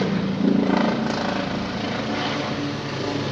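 A helicopter drones steadily overhead, its broad rotor and engine noise filling the scene at a loud, constant level with a slight pulsing throb and no voices.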